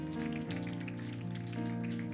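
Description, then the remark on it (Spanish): Steady, dense applause crackles for about two seconds, a crowd clapping continuously for the high school students present, over sustained musical chords that shift pitch partway through, with no voices audible. “Den un aplauso a los que están en high school.”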